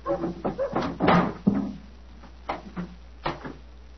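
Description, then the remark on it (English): Knocking on the door of a house for the keeper to open: a quick cluster of hollow wooden raps, then a pause and two short pairs of knocks, fairly loud with no one speaking. “Knock again, old fellow, will you?”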